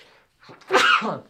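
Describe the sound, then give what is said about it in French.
A single sharp sneeze, loud, with a quick inhale just before it and a brief breathy tail afterward. No one speaks. “À vos souhaits”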